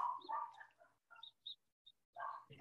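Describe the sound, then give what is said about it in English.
A dog barks in the background with a handful of short, sharp yelps spaced irregularly, moderately faint and mixed with other vocal sounds. “it's all good we love the dog barking in the background because it's imperfectly perfect so we welcome the dog and everybody else in this conversation it's all good”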